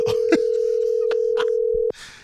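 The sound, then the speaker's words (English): A steady electronic ringback tone from an outgoing phone call hums loudly for about two seconds, then cuts off abruptly, with faint background noises and murmurs beneath it. “Come on, man. Answer the phone, bro.”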